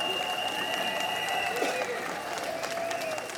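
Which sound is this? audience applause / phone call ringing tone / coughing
audience applause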